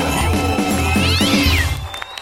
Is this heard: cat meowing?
yes